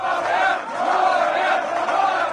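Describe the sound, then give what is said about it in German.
A large crowd cheers and shouts loudly and continuously, a dense roar of many voices with rising whoops, no single speaker standing out, celebrating the right-wing populist FPÖ's spectacular result in Austria's 2016 federal presidential election. “Der Jubel ist groß, denn diese Wahl hat Geschichte geschrieben.”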